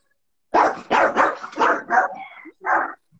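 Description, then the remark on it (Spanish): A dog barks in a quick burst of about six loud barks, then pauses briefly before one final bark; no talking is heard. “está dando su opinión el ah. perro.”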